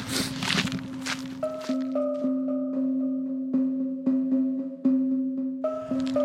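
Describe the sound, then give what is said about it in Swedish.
Footsteps walking outdoors at a steady, regular pace, going straight from Ågårdsvägen over the Ågårdsbron bridge to Smalspåret. Each step is a soft crunching thud, heard beneath a sustained droning tone with a brief rustling burst at the start. “Eh, nu har vi kommit fram till smalspåret, alltså gått raka vägen från Ågårdsvägen över Ågårdsbron till smalspåret.”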